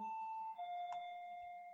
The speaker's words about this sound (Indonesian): ada bel. ada pesanan.